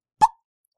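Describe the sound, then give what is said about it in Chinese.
A button is pressed once, giving a single short, hollow plop with a bright mid-pitched ring that dies away almost instantly, followed by silence. No one speaks. “嘿嘿嘿，小朋友，你们看，我刚刚按按钮，根本就没事嘛，电灯也还开着，故事还继续在讲啊。”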